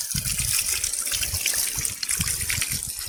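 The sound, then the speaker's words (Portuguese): A strong, steady gush of water pours continuously from the outlet of a half-CV three-phase solar-powered pump, part of a water supply system at the Munduruku post on the Cururu River, tested at peak time around 2:30 in the afternoon. Loud, with splashing churn underneath and no voices. “Faça-me tá teste, a bomba de meio CV trifásica. Os painéis estão tá ali no canto. Olha aí, uma ótima vazão aí.”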